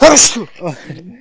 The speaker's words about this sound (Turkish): İkinci defa hapşırdın değil mi bugün? Bir de arada hapşırdın.